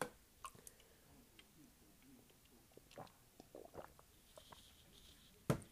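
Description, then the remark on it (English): Quiet swallowing with small wet mouth clicks and gurgles scattered throughout, ending in a sharper click; no one speaks. The person swallowing has a dry throat. “Sorry if you guys heard me swallowing.”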